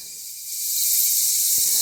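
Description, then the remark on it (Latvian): A steady, airy hiss, swelling slightly louder after the first half second and holding, with one brief tap near the end. Hissing exotic insects, no voices. “šie ir eksotiski kukaiņi.”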